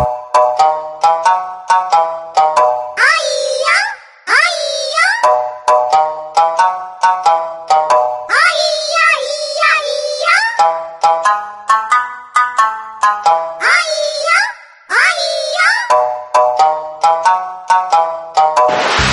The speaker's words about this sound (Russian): В любом случае, очень похоже по звучанию на рингтон, который сегодня занимает четвертое место.